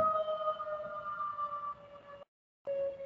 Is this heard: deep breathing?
no